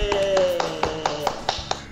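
About nine sharp hand claps in a quick, steady rhythm, each a crisp, bright smack, over a faint humming background with no talking.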